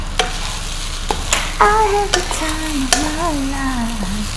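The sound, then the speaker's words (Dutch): Chicken frying in a pan with a little oil on a heat source set to 10 out of 14 gives a steady sizzle, broken by a few sharp clicks and scrapes from a utensil against the pan and a thin, wavering squeal. No one speaks. “Olie heb ik gehad. Ik doe de kip erbij.”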